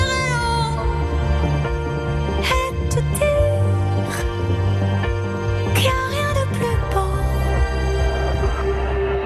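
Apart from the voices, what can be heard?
disco pop song playing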